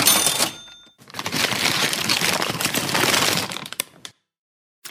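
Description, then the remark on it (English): A cash register drawer clatters open, then several seconds of busy rustling and clinking as all the cash is scooped out of the drawer to be put in a paper bag, ending abruptly with a faint click. “Sir, madam, I'm going to need you to pick all the cash out of the drawer and put it in a paper bag, recyclable preferably.”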